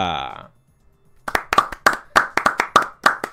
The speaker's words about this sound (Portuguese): As palmas estão demoradas, hein?